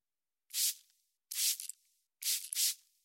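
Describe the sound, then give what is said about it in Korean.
Portable hand sanitizer spritzed from a small spray bottle onto elevator buttons one by one: short, bright hissing puffs, one, another, then a quick double, with no talking. “그러더니 휴대용 소독제를 일일이 버튼에 뿌렸다.”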